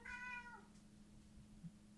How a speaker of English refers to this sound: I don't know if you can hear my stupid cat in the background he's meowing.